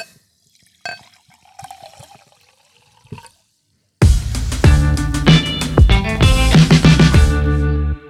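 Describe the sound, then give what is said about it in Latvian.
Mineral water is poured into a glass, leaving soft, sparse fizzing crackles for a few seconds before loud music abruptly takes over. “bet beigšu ar tādu dziļu nopūtu un varbūt kūstošu ledāju skaņu ielējot minerālu ūdeni glāzē.”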